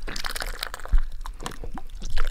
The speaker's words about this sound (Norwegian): Jeg bare skal sørge med å få med litt sånn hellelyd, for jeg syns det så, gjør seg så veldig bra